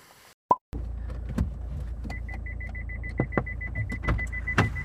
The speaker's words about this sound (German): Ich kann mein Auto jetzt eigentlich ausmachen, weil ich bin oben im Institut angekommen.